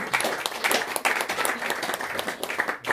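An audience applauds steadily, a dense wash of many hands clapping at once with no pause, loud and sustained for the full few seconds.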